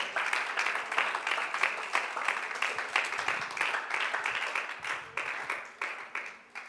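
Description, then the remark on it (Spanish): A crowd applauds steadily, many hands clapping in a dense, bright patter that holds at an even level for several seconds before gradually thinning out toward the end; the applause is offered to God during a sermon. “Ríndele ese aplauso con su corazón en esta hora.”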